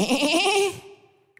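A single loud, quavering sheep bleat lasting under a second before trailing off into quiet, with a faint click at the very end.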